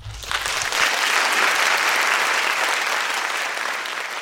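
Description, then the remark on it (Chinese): At the Pingtung enforcement branch in Taiwan, a crowd applauds to welcome Chief Prosecutor Zhang Qingyun of the Taiwan High Prosecutors Office Taichung Branch. The clapping is steady for several seconds, a dense, even wash of many hands that swells quickly at the start and stays loud throughout, with no voices over it. “他今天特别从台中赶来屏东执行分署，也就是我们的前任署长，现任台湾高等检察署台中分署的检察长张青云检察长，请大家掌声鼓励鼓励。”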